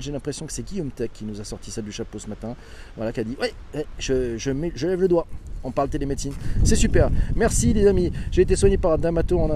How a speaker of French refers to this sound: Désolé pour le vent, il y a pas mal de vent ce matin.